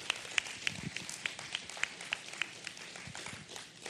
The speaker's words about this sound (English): This is a wonderful time to be here and for you to be in this church. Amen. Let, us give the Lord an applause offering.